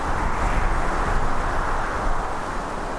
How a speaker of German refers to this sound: In einigen Wochen fegen ja vielleicht eisige Winde über das Land, so wie dieser Wind, den wir jetzt hören.